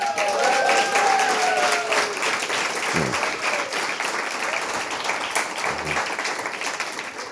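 Steady applause from an audience congratulating a man on an achievement fills the whole stretch, dense and fairly loud, with a few whistles and cheers rising over the clapping near the start.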